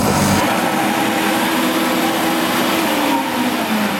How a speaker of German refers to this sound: Die Wässermaschine, die, geht, die läuft durchs Wasser, damit das Band immer nass ist, weil beim Schleifen darf das nicht ausglühen.